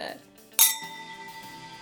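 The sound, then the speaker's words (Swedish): A single bright clink of glasses touching in a toast, ringing briefly with a clear sustained tone, while soft voices murmur in the background. “Alltså okej, okay, en till skål.”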